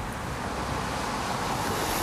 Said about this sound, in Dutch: En we staan hier op de hoek van de Bremasweg in de eh, Industriestraat in Hengelo. Er wordt eh, hier eh, vooral heel hard gereden door auto's. Er is hier sprake van heel veel vrachtverkeer.